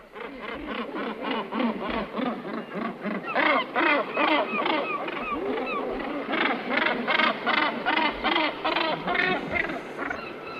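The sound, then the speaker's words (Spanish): A large seabird gives loud, harsh, repeated honking calls in a steady rhythmic series, close by and continuous throughout, with no talking; a call this bird makes only in the breeding season. “Pero es un sonido que oímos a esta gran ave marina solo en la época de cría.”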